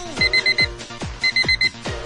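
A cheap alarm clock beeps in two quick bursts of four shrill electronic tones, each burst separated by a short pause, loud and harsh with no one talking.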